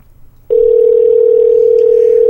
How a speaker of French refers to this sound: Oh ah, là là là là, une sonnerie de téléphone